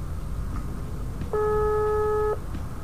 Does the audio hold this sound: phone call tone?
yes